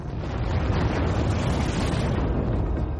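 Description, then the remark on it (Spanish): A sustained, rumbling explosion sound effect for a supernova explosion, with heavy low-end roar and crackling noise, holding steady and loud for about three seconds without any talking. “Incluso a explosiones de supernovas.”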